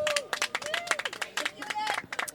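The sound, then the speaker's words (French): A small group on a radio show applauds a technical crew member on his last day, quick uneven claps blending into a steady patter, with a few voices calling out and cheering over the clapping. “Je pense qu'on peut l'applaudir un petit peu quand même.”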